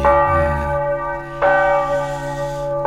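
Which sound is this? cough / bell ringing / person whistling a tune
bell ringing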